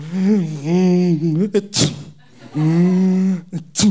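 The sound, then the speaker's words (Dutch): A voice imitates a little lamb with a cold lying beside a tent: two wavering, nasal bleats, each followed by a sharp, wet snuffling sniff, fairly loud. “En daarnaast een klein lammetje met een snotvalling.”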